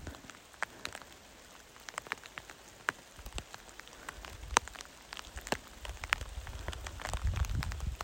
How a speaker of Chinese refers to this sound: 你好，现在是八月十五号下午五点二十一分，下雨了。我穿了雨衣，所以声音特别的响。